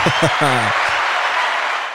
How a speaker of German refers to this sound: Applaus bitte. Du kannst ja so einen Applaus einblenden. Juhu!